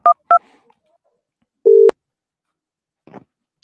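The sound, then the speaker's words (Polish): Two quick telephone keypad tones beep in succession, then a louder, sustained electronic beep follows as the call connects, with a faint soft rustle afterward. No one speaks. “Kolejny telefon.”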